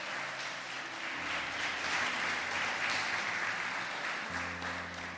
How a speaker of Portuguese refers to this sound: Aplaude e glorifica o nome desse Deus maravilhoso.